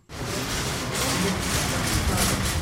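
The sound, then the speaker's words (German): Steady outdoor ambience of a supermarket car park at Kurt-Schumacher-Platz in the Kesselstadt district of Hanau, Germany: a continuous low rumble of parking cars with a broad, busy wash of noise and faint clattering shopping carts as people carry bags out of the supermarket. “Einkaufswagen klappern, Menschen tragen Taschen und Tüten aus dem Supermarkt, auf dem Parkplatz davor parken Autos.”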